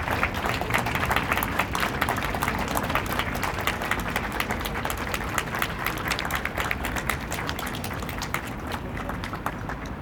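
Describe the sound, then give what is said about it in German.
Sustained audience applause for a musician after her performance, a dense steady wash of many hands clapping at an even loudness for about ten seconds, with no voices standing out. “Bitte nochmals einen großen Applaus für unsere Musikerin.”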